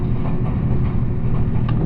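A steady, dense low rumble of the limited express train Nanpu No. 20 on the Dosan Line, running from Oboke to Tadotsu and arriving at platform 2 of Tadotsu station, with continuous rolling and mechanical noise throughout and no voices.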